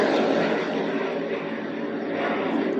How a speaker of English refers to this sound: The thought of a plane is so amazing to me. That big old piece of metal just up there, flying around, la la la.